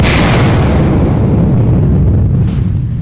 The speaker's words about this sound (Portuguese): E ele a encontra debaixo da cama, mas para seu infortúnio não há mais do que dois segundos para realizar o desarme da ogiva. O primo apenas fecha os olhos e a explosão ocorre.